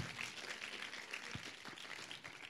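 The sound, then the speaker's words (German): An audience breaks into steady, dense applause for Jesus, many hands clapping at once in a continuous crackling wash that holds at an even, fairly loud level throughout, with a few low thumps underneath. “Ja, gebt Jesus einen Applaus.”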